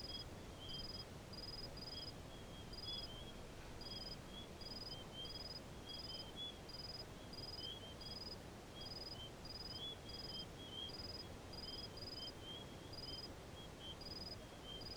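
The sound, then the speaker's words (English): Night insects in the desert chirp steadily in a fast, even pulse that never lets up, with a second fainter trill beneath it and a soft low rumble in the background; no voices. “that the silence of nature is not really silent at all, that it buzzes and hums with life, with insects and rodents and coyotes and birds and wind in the chaparral and the grass,”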